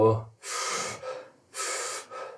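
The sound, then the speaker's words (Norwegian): Rapid, forceful breaths: two loud, noisy inhale-exhale cycles in quick succession, each a harsh rush of air, someone deliberately hyperventilating to flush CO2 from the lungs before a breath-hold. “Som er hyperventilere.”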